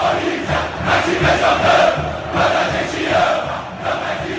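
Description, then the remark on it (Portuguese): A large crowd of Corinthians organized football supporters (torcida organizada) chants in unison, a dense roar of many voices rising and falling in rhythmic waves, loud and sustained throughout. “Caro ouvinte, o que você acabou de escutar é a torcida organizada do Corinthians”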